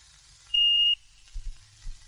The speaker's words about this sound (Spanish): Cuando oiga la señal, puede dejar su mensaje.